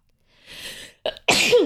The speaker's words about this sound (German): Gesundheit.